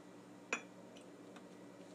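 A single bright clink of a glass of ozonated water being set down or tapped, followed by a couple of faint ticks against a quiet background hum; no one is talking.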